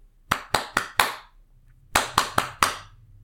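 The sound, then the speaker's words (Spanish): Two quick bursts of hand clapping, four crisp, evenly spaced claps each, separated by a brief pause. The claps are sharp and fairly loud, with no talking over them. “Y en eso comenzaron como a aplaudir, pero tipo como...”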